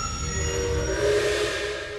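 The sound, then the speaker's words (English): A train driven by Jack Mills slows to a stop at an amber signal light. Its heavy low rumble runs under steady high-pitched brake and wheel squeals that ring throughout, fairly loud, easing off slightly at the end. No one speaks. “He sees the amber light ahead and slows the train down to a stop.”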